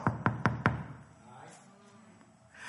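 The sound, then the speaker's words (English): Four firm knocks on a door in a quick, even rhythm, solid, followed by a quiet stretch of faint room noise. “And then you hear the knock on the door.”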